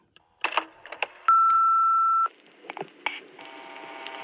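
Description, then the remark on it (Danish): A few clicks and clunks, then a single loud, steady answering-machine beep lasting about a second, followed by quiet line hiss and faint rustling as a voicemail starts to record. “Der er lige en telefonsvar til, som vi lige skal have, inden at, øh, vi smutter.”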